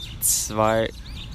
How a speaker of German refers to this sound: Ja, Vögel. Beruhigt.